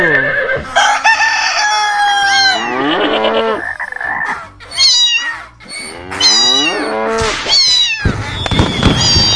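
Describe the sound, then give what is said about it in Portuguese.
An old cat meows loudly and insistently, over and over, with drawn-out, wavering yowls filling the whole stretch. No one speaks. “Tá, tá esse barulho aqui todo. Gato, cala a boca! Cala a boca!”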